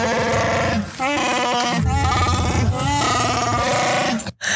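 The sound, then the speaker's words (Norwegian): A loud, warbling creature growl sound effect, the Wookiee roar of Chewbacca, with bleating, quavering moans rising and falling in several long bursts, ending abruptly. “Og Adelina, du er Chewbacca, og Chewbacca høres sånn her ut.”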